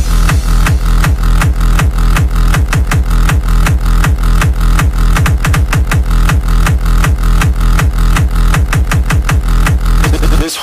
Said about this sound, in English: hard clipping of the waveform. And if pushed to the extremes, you may have accidentally encountered this, this, this creating a digitally distorted sound.